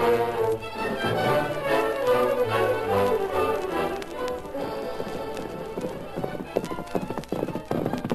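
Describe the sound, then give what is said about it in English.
Horses' hooves, including the horse Silver, clip-clop in a steady trotting rhythm as the masked man and Tonto ride out to meet a lone rider, growing sharper and more distinct in the second half, alongside a swelling tonal music bed. “Get your horse, Tonto. We'll ride out to meet him.”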